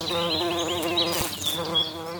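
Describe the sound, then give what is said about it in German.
Bees buzz steadily, a dense droning hum with wavering pitch as they move around, continuing without pause and with no voices. “Bienen. Denn wenn die nicht bestäuben, entwickelt sich aus einer Blüte auch keine Frucht.”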